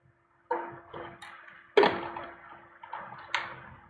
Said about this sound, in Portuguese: Tá, só tomando uma água aqui.